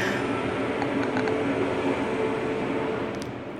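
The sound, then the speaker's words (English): Steady, dense roar of New York City street traffic at 5 a.m., with a broad rumbling wash of passing cars. It is constant and fairly loud throughout, easing slightly at the very end, with no voices. “Again, some cars New York City, 5 a.m., but still lots of noise.”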